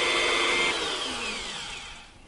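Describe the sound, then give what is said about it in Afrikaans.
A power drill whirs loudly, spinning a knife part while it is polished with a piece of sandpaper, a gritty, abrasive hiss holding steady before the motor pitch slides downward as it spins down. No one speaks. “So hy draai nou so, so ek sit hom in die sak en dan gebruik ek maar net 'n stukkie skuurpapier En dan werk ek nou die die parkie so mooi tot ek nou gelukkig is dat hy nou blink genoeg is.”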